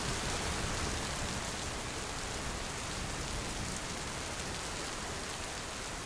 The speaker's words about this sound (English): But not long after he set off, there was a torrential rainstorm.